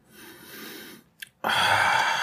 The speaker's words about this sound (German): Ähm, äh, das ist natürlich jetzt ein bisschen spirituell, aber nehmt euch mal die Zeit, setzt euch hin, Schließt die Augen und atmet mal so richtig tief durch die verstopfte Nase ein.